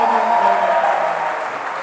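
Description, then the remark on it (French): A crowd claps steadily for a couple of seconds, a dense, even patter of many hands that fades slightly toward the end, with murmuring voices mixed into the applause. “là, là, là, là, euh, je n'enregistre pas les, pré-applaudissements.”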